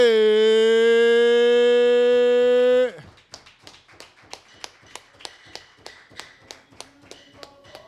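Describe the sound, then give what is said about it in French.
A sustained, steady tone holds for a few seconds and then cuts off, followed by an audience clapping in a steady, even rhythm of sharp claps at an evening event with a concert and poetry sessions. “Mais là, mesdames et messieurs, je vous demande d'applaudir”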